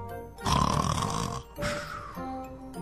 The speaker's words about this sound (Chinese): 蝎子精的呼噜声太大了，二娃悄悄地从他们的身边溜了过去。